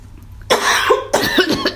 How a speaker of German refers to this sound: ich huste mal mit, Entschuldigung.